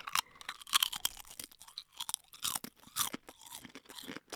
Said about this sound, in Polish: O, bardzo chrupę. Mhm. I chrupanie odbywa się mm. dalej. Na przykład 30 raz chrupiesz Aha. i dalej chrupiesz.